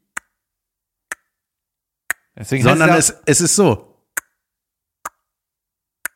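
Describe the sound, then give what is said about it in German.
An IKEA wall clock ticks steadily about once per second, six crisp clicks in all, with a short stretch of someone talking partway through. “Ist da eine, so eine Tic-Tac-Uhr? Da ist eine Tic-Tac-Ikea-Drecksuhr.”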